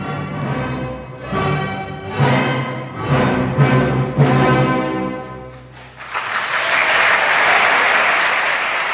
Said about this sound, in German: ist ein Teil des Jubels auch ihnen zu verdanken.